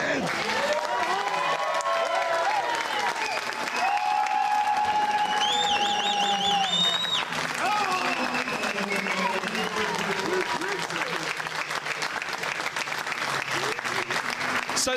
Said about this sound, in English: Flash Shedden wins race three and finishes third in the Drivers' Championship, much to the delight and applaud of the Honda Yuasa Racing Team garage here at Brands Hatch.